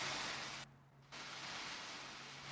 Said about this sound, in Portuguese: Tá chovendo aí, cara? Aqui tá.